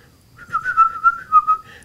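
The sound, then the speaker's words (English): A person whistles a short bird-like call, a run of warbling chirpy notes near one pitch, clear with no talking. “if you do the sort of a bird whistle, they'll all open their mouths at the same time.”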